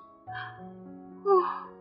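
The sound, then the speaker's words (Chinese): A long, drawn-out yawn voiced from the throat, starting as a low groaning tone and swelling louder toward the end before trailing off, with no talking. “我装作若无其事的样子，打了个哈欠。”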